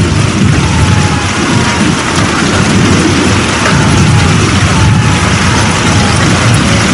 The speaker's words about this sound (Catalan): Alertau en aquesta ventada!